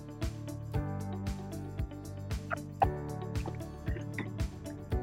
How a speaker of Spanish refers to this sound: Permítanme tomar un poco de agua.